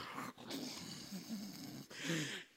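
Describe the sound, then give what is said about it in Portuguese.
A voice imitates snoring with rough, raspy, drawn-out snores, two or three breaths in a row with brief gaps between, fairly loud and with no talking. “E de repente, a oração se confunde com ronco.”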